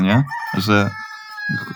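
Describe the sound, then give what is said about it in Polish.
A rooster crows in the background with a drawn-out, harmonic call, partly overlapping short bits of nearby speech. “słyszycie koguta w tle? Jak tutaj?”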